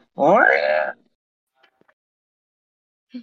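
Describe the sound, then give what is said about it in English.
A person imitates a loud, drawn-out cat yowl, standing for a cat right outside a door in a house, in one rising-and-falling wail lasting under a second, followed by near silence with a few faint clicks and a brief sound at the end. “It, did it sound and, like a cat? No, it was a cow. Yes, it was the cat.”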